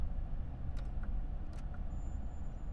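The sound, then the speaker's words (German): A blower fan runs steadily, giving off a constant low rumbling whoosh with a faint high whine. It continues unbroken throughout, with no voices. “dieses Gebläse der. Jetzt hast du es getötet.”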